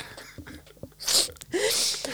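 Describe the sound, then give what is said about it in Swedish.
A single sharp sneeze bursts out in a studio, a quick inhaled build-up followed by a loud, hissy explosive release and a brief tail. “Prosit, vad var det där?”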